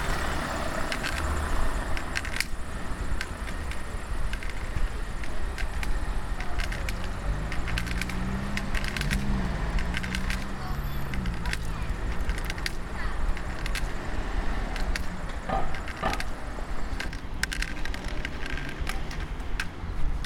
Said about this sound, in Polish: samochody po prawej, e, po lewej.